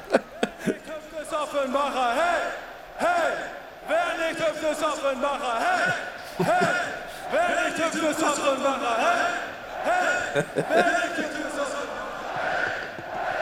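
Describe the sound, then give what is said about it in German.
A man sings loudly and steadily over a noisy crowd, his voice carrying sustained, wavering notes while the audience's roar and cheers fill the background throughout. “da haben wir eine schöne Gesangseinlage von dir vorbereitet”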